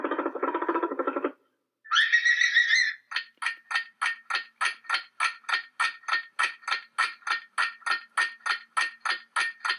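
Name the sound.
rabbit vocalizing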